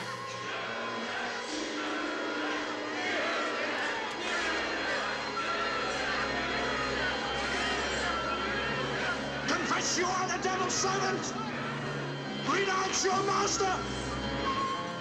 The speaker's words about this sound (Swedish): Nu är det bandymatch.